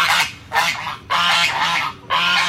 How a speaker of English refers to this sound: He's got horses and chickens and sheep. And those are geese.